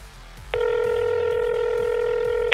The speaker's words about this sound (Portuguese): Bom, liguei. Tô esperando ele atender. O telefone toca algumas vezes, né? É, ele não atende de imediato.